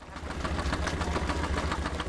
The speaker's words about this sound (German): klingt wie ein Motorboot, aber nein, es ist ein mechanischer Quirl in einem großen Farbtopf. Ein Verkäufer mischt vor den Augen der Kundin zwei Wandfarbtöne. Dunkelrosa und blau.